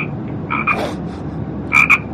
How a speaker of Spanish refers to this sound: Pero bueno, ¿y esta rana de quién es? No me lo puedo creer.